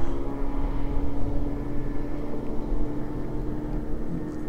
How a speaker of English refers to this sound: goes a little speedboat heading out.